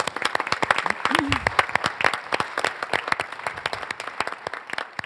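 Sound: studio audience applause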